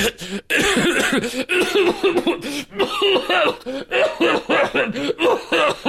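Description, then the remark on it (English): A man in a movie has a long, unbroken coughing fit: rapid, repeated hacking bursts one after another, loud, continuing for several seconds without a pause and with no talking over it. “No, he's obviously just like having a what coughing fit.”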